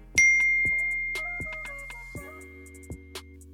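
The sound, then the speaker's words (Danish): A bright, clear push notification ding rings out and lingers, followed by a handful of softer chiming notes that fade away. It stands alone, with no talking. “Her lander en lidt glædelig push-notifikation.”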